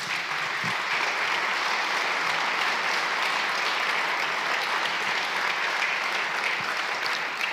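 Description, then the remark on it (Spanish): Sustained applause from a church audience giving an ovation to King Jesus fills the whole stretch, a dense, steady wash of many hands clapping at an even loudness with no voices standing out. “Dale una ovación al Rey Jesús.”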